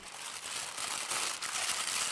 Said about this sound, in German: Nun decke ich den Teig mit einem frischen Geschirrtuch zu.